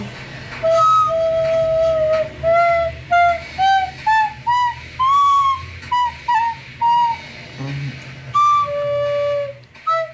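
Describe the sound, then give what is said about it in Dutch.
A whistle is blown in a run of short, clear pitched notes that step upward like a simple tune, then two longer held tones, loud with no talking. “Heb je wel een fluit? Ja, ik heb wel mijn kant niet hoor. Oh, daar ligt hij. Ja, Mag ik erop fluiten?”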